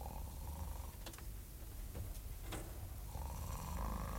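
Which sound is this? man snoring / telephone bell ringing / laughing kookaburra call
man snoring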